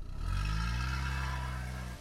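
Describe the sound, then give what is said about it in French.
A vintage grey Morris Cowley car engine rumbles steadily, its low throaty drone holding for a couple of seconds with a slight rise in pitch as it begins to pull away, as a woman leaves her house in Berkshire for a drive at about 10 p.m. “puis annonce à sa cuisinière qu'elle part faire un tour au volant de sa Morris Cowley grise.”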